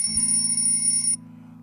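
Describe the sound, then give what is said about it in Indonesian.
An electronic alarm rings with a steady, bright, high-pitched tone for about a second, then cuts off abruptly, leaving a low hum beneath. No one speaks. “maaf, maaf alarm”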